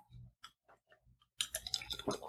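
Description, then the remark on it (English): A few soft, scattered clicks and small mouth sounds, then a louder burst of slurping and liquid noise as someone sips iced tea, with faint rattling like ice in a glass. “We allow ourselves to, to think upon this and take a sip of iced tea.”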